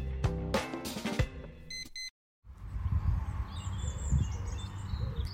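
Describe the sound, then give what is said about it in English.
Bright tonal beeps and notes, then a brief silence. Outdoor ambience follows, with a low rumble and several small birds chirping, high and intermittent. “Can you hear the birds?”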